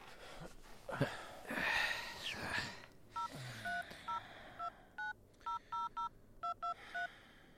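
A quick series of crisp electronic keypad tones as a phone number is dialed, about a dozen short beeps in an uneven rhythm, preceded by heavy breathing and rustling.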